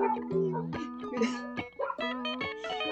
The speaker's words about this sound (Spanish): Puta, están ladrando, pero furioso.